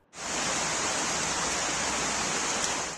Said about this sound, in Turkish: Sabah saatlerinden akşama kadar devam ettiği yağış dere yataklarında taşma meydana gelince sel suları sokaklarda şelale gibi aktı. Tarım arazileri su altında kaldı.